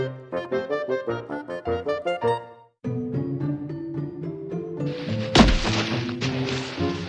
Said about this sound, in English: Thump! Alice fell on a pile of dry leaves.